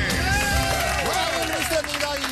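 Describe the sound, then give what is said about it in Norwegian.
A crowd cheers and applauds loudly and steadily, with whoops and shouted voices rising and falling over a dense wash of clapping. “God jubel.”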